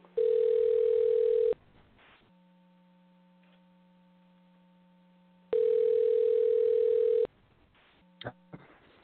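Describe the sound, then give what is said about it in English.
A telephone line rings out as a call is placed to a man, with two long, steady electronic tones separated by a pause of several seconds, over a low line hum, ending in a few soft clicks. “I'm going to dial him up right now and see how he's doing, and uh, we'll be on with him shortly.”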